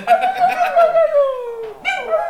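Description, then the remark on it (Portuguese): A dog lets out a warbling, pulsing howl that slides down into a long whine, then a short higher yowl, almost like it's trying to talk. “só quem tem cachorro Caraca. que entende as palavrinhas que eu estou falhando.”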